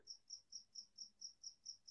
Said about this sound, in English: Whose cricket is that? Yours or mine? It's mine. The cricket is insane over here.